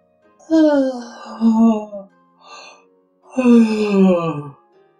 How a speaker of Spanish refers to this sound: Se quedó entonces de pie y como estaba muy fatigado, bostezó.